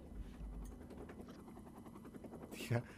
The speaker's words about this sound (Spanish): Dije, eso y ahora sonaba un helicóptero arriba a mí.